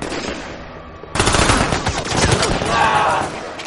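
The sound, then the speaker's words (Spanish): A sudden burst of rapid gunfire erupts after a quieter moment as a North Korean soldier fires from a bar at an infiltrator's back, continuing as loud, dense, chaotic volleys of shots. “Desde el bar, un soldado norcoreano dispara en la espalda a uno de los infiltrados.”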